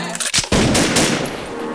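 A rapid burst of gunfire, loud and sharp, with a couple of isolated cracks followed by a dense, sustained volley of shots. No voices are heard.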